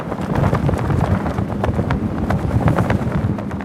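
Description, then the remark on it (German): Loud, constant storm-force wind gusts buffet the microphones with heavy low rumble and distortion, while an anorak and rain trousers flap and rattle in rapid irregular bursts. No one speaks. “Die Böen wüten jetzt mit Sturmstärke. Anorak und Regenhose knattern ohrenbetäubend, die Mikrofone verzerren.”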